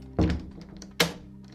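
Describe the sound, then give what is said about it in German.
A door being opened by the Pink Panther, marked by two solid wooden clunks about a second apart, fairly loud, with a faint background hum and no talking. “Pink Panther öffnete Remus und Oda lässig die Tür”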